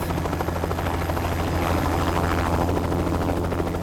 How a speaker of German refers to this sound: Zehn Minuten später ist mein Inspektor Gruber mit dem Helikopter auf dem Weg nach Bregenz, wo er in einen unauffälligen Polo umsteigen und nach Deutschland fahren wird, um die Disk zu holen.